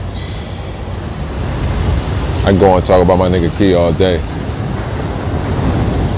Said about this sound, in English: I really wanted to go a little bit longer, but the rain out here getting a little stronger.